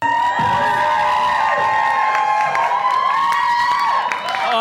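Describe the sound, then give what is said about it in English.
An American comedy show audience screeches and cheers at full volume, a dense, sustained wall of high-pitched shrieks and whoops that barely lets up for the whole stretch. “You know, ovary Americans, when they go to see woke scold comedy, they have to let you know how into it they are by screeching as loud as possible.”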